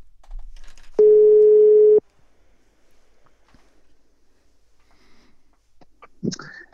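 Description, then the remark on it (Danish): A single loud, steady telephone ringback tone sounds for about a second as a call is being placed, followed by several seconds of near silence before a faint click and a brief voice-like sound at the end. “Så nu ringer jeg altså til, øh, til …. Jeg ringer til ….”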